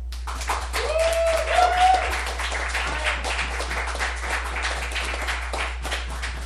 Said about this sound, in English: You you gotta decide who gets the louder applause if you believe that the winner of this debate and our next president is Mark Zuckerberg, please applaud now.